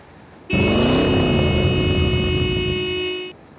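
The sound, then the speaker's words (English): A car engine roars loudly for about three seconds, kicking in abruptly and holding a strong, steady growl before cutting off. No one speaks. “We all turned to see it right back where we left it, revving its engine.”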